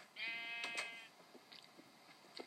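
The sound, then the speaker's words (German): A single sheep in a video game bleats loudly, one wavering bleat lasting about a second, followed by a few soft clicks and taps in an otherwise quiet background. “Schafis kommt auch rein. Schafe sind natürlich auch geil, aber Pilzkühe sind noch nicer.”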